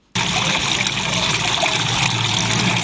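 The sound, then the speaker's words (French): Water trickles and splashes steadily onto pebbles at Pont-Aven, a continuous wash of liquid sound that starts abruptly and holds at an even level throughout, with no voices. “Et encore, ce pipi de chat, euh, le son est bien placé, vous voyez, sur les galets de Pont-Aven, euh, vous l'entendez là.”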